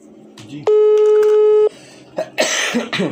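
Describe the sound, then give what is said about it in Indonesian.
A steady electronic beep holds for about a second, then a couple of harsh, close coughs burst out in quick succession near the end. “jadi batuk aja mah”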